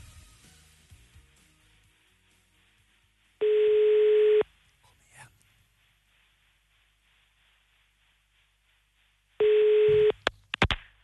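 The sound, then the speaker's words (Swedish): Ringback tone of an outgoing phone call placed from the show Äntligen Morgon to a person in Anderstorp: two steady, mid-pitched one-second beeps about six seconds apart, with quiet line noise between them and a few clicks after the second tone. “Jag nickar om hon svarar rätt ja. namn, om jag ringt rätt.”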